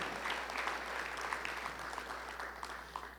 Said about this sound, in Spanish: Gloria a Dios. Si quiere aplaudirle al Señor, apláudale.